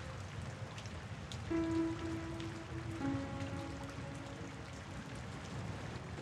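Steady rain patters and hisses throughout, with two long, low droning tones rising out of it partway through, giving an eerie, moody feel.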